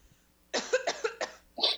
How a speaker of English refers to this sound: My allergies are super bad right now, so I might have to cough. It's not COVID.